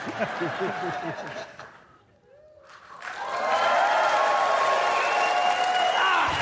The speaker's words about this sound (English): A big round of applause. Thank you so much.